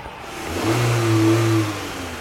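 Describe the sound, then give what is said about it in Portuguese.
A racing car engine revs up and accelerates at automobile races in Paris, its steady drone swelling louder in the middle before easing off slightly, heard alone with no voices. “Paris também é um local de corridas automobilísticas.”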